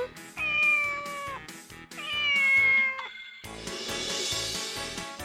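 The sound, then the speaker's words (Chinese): A cat meows twice, each a long, drawn-out, fairly high cry that sags slightly in pitch, over a steady rhythmic music track that carries on alone afterward. “吃饱可以开心的玩耍，聪明的小朋友猜对了吗？我就是猫咪。”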